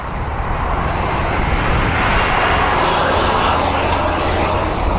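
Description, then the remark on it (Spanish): A loud, close, continuous roar of heavy trucks rolling past on a road, a broad engine-and-tire rumble that holds steady throughout with no voices. “es que los camiones te pasan por el lado, no te dejan hablar.”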